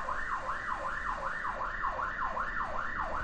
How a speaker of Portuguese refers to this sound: Olha a sirene aí, não vai embora, ficou aqui. Pô, será que sou eu? Chamaram pra mim?